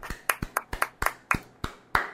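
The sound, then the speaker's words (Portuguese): Hands clapping in applause for a doctor, about eight sharp claps in a quick, slightly uneven rhythm, with no one talking over them. “Queria pedir uma salva de palmas aí.”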